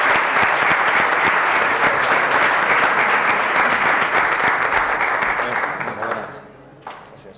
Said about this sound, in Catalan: Si us plau, un aplaudiment